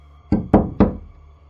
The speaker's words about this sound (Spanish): Después de unos minutos, volvieron a tocar la puerta tres veces.